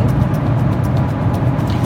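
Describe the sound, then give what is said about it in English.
A small Renault car drives along a road near Quebec, its engine and tire noise forming a steady, continuous low rumble that stays fairly loud throughout, with no one speaking. “a little Renault. Oh, I see. Guy. I see. Zooming in and out”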